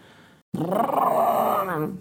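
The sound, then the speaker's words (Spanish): After a short pause, a voice launches into a loud, sustained growling rev, mimicking a roaring motorcycle engine for about a second and a half before trailing off. “Las motos las motos esas con el,”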